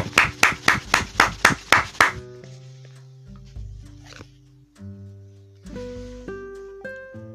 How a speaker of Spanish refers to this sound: Fuerte, fuerte el aplauso para la palabra del Señor, para el verbo.